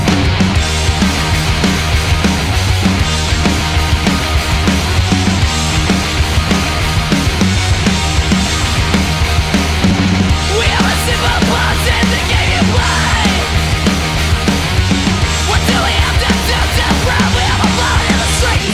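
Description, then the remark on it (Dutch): A loud, dense rock song plays: distorted guitars and pounding drums drive a steady beat while a male vocalist shouts hoarsely over the full band throughout. “klinkt een beetje als eh, … als hij hard gaat eh, schreeuwen.”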